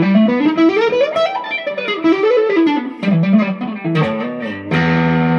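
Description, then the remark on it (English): Distorted electric guitar runs fast shred scales, sweeping up and down in rapid three-note-per-string patterns, then settles on a sustained held chord at the end. Loud and alone, no talking. “If you're wanting to make it a bit more of a a tastic thing, you can always turn it into more of a shred thing by doing a three note string.”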